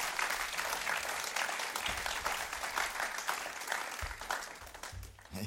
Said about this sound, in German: Und geben wir ihnen einen grossen Applaus, dass sie da auf der Bühne sind.